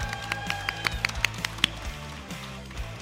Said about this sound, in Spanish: A quien saludamos con este tremendo aplauso del público presente aquí en la Innovatón.